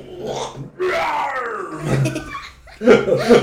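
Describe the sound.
A child imitates a lion's roar in a long, rough, rising-and-falling growl, followed by a couple of shorter, gruff bursts.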